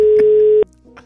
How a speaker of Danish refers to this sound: Er du i gang med at ringe til en? Ja, kraftedeme. Nu ringer jeg til en.